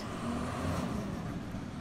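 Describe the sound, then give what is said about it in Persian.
A large recycling truck marked 'recycling' rumbles steadily as it approaches. Its heavy engine drone is broad and continuous, holding a fairly even loudness with no voices present. “بعد از چند روز ماشین بزرگی به سمت من اومد که روی اونم نوشته شده بود بازیافت.”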